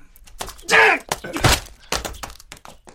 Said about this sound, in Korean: 교준의 강목이 원경호의 관자놀이를 강타했다.